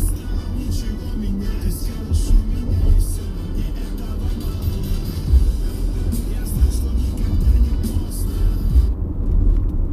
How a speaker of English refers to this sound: Those were the people in the trucks? Yeah that were driving past.